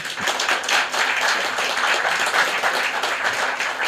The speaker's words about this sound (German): Können wir einen äh, Applaus äh, haben?